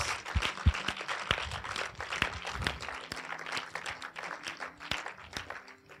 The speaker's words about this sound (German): Und lass uns einfach mal Jesus einen Applaus geben. Danke, Jesus.